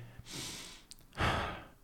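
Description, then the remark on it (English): A slow, deliberate deep breath, fairly soft: a long airy inhale, a brief pause, then a fuller, louder exhale. No one speaks. “I'm breathing. God is good.”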